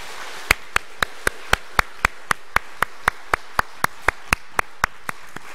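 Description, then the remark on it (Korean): A church audience claps to welcome the elderly members of its senior mission during a worship service, about twenty sharp, evenly spaced claps in a steady, brisk rhythm, like hands clapping together in unison, with no talking over them. “그리고 정말 이 땅에서도 평강을 누리실 뿐만 아니라 영원한 소망 속에 부활의 약속 속에 살아가시는 우리 노인 선교의 모든 어르신들 되기를 우리 온 성도들께서 우리 박수로 한번 같이 환영하도록 그렇게 하겠습니다.”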